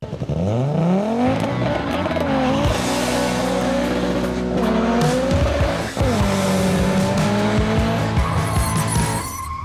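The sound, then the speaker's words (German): The engine of an Opel Ascona rally car roars loudly, its pitch climbing and dropping through gear changes while the tires screech and skid as the car bucks around, with a brief break midway before the engine surges again. “Die Motoren des Ascona laufen eigentlich gut, aber der Opel ist vom Fahrwerk her noch immer nicht erste Sahne.”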